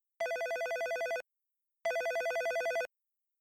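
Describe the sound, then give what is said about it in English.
A telephone rings twice as a woman in labor phones the hospital, each ring a bright, rapidly warbling trill lasting about a second, separated by a short pause. The sound is clear, with no voices. “So when the woman is in labor, she's, uh, if it's her first baby, she's used, usually has attended to, together with her partner uh, to a, like a labor preparation class uh, when when she's due and she's at home, we she phones the hospital.”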